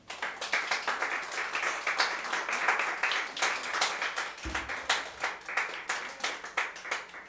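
A crowd claps for the Lord together in a dense, steady burst of rapid hand claps that continues throughout, bright and fairly loud, with a brief low thump partway through and no speech.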